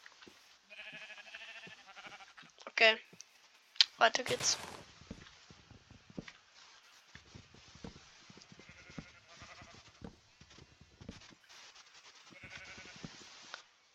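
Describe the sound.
A sheep bleats a couple of times in a video game, amid game sounds and footsteps, with a man speaking briefly over it; the bleats are fairly loud.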